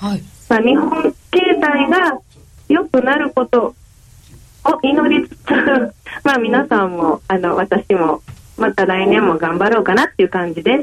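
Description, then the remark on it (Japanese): A voice comes through a poor telephone line with bad signal, thin and tinny with no bass or crisp highs, speaking Japanese in choppy bursts with a short laugh partway through, during a phone interview about the coming year's stock prices and yen outlook. “ちょっと電話の回線が良くなくて、お聞きづらかった点がありましたことをお詫びいたします。”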